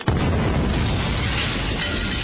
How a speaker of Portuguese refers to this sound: Ouça esta tampinha de caneta caindo no chão sem áudio power. Agora ouça a tampinha caindo com áudio power